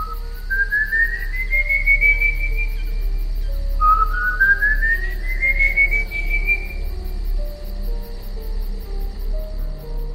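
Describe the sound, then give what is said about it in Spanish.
Eerie, drawn-out whistling of the Silbón legend, rising in long gliding notes, two separate phrases climbing in pitch, heard alone over a faint steady hum and soft background buzz. “En algunos lugares lo conocen como el silbador o el chiflón.”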